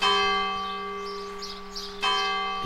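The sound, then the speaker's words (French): A church bell tolls at night, striking twice an hour, with a rich, ringing tone, struck once and left to hum before a second strike rings out, loud and resonant, with no voices. “j'entendais les cloches la nuit.”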